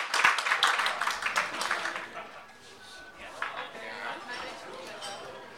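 An audience applauds a poet after a poem reading, with dense, loud clapping for the first two seconds that eases into a softer, steady patter of scattered claps and faint crowd murmur until the end.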